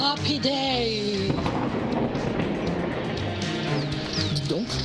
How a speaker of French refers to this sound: Quel bruit On dirait un avion, non Ah oui, regardez, il est là-bas Un avion sur un porte-avions.